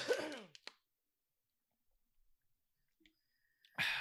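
A rough throat clear, then near silence with a few faint, soft sips and swallows of water, before a loud breathy exhale at the very end.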